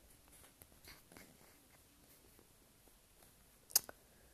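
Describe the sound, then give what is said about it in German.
Quiet computer mouse-button clicks, pressed repeatedly: a few faint, scattered taps, then one sharper, louder click near the end. No one speaks. “Ich klicke da die ganze Zeit drauf.”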